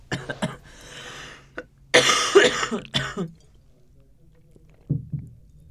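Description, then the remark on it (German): A coughing fit: a few harsh, raspy coughs in quick bursts, a longer strained one in the middle, then a pause and a final weaker cough. “Ich habe keinen Husten eigentlich.”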